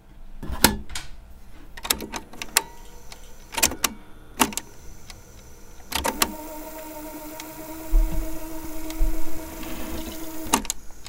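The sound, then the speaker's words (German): A cassette tape fast-forwarding in a player: several sharp mechanical clicks of buttons, then a steady whirring motor hum with a faint high whine for about five seconds, ending in a click. “Das war Vorspulen.”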